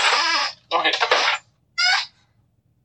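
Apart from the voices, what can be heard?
chair creaking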